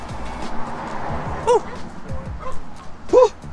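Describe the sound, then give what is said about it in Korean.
A puppy lets out two short, high-pitched yips about two seconds apart, clear above a busy outdoor background with faint voices murmuring. “너무 강아지다 지금 날씨가 좋대 알아들어?”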